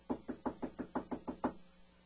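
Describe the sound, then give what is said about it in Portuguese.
Light, quick knocking on a bedroom door, about eight soft taps in an even rhythm lasting a second and a half, fairly quiet, with no voices. “uma batida leve foi ouvida à porta do seu quarto.”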